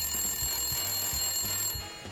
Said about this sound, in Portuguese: Hum, peraí, telefone, eu já volto.